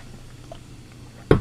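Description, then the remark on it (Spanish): Someone takes a quick sip of water from a small glass, a single short slurp and swallow that breaks a stretch of quiet room tone near the end. “Traje un vasito de agua, déjenme tomar un traguito.”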